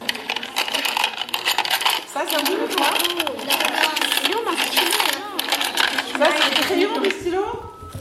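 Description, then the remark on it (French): A pen dropping and clattering onto a hard surface, with busy rattling and tapping that continues for several seconds before it suddenly stops. “Mais il est où mon stylo Ah, Super J'adore ça vous avez vu cette idée de se dire Ah, on va peut-être pas reconnaître que c'est un stylo, on va jouer un peu la comédie.”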